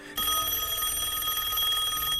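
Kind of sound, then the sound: signal or alarm, telephone bell ringing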